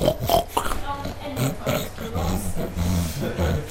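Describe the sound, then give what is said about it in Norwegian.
A large group of pigs in a corner of a pen grunt and snort in a steady, overlapping stream of low, rough calls that continues without a break for several seconds. “Det står en hel haug med griser borti et hjørne her og ser veldig eh, vettskremt ut på meg.”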